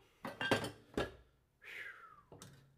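A small load of dishes clinks and clatters as it is washed up, with a few sharp knocks of crockery and a brief scraping, sliding sound in between. No one speaks.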